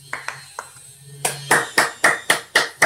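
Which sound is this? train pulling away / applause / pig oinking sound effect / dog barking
applause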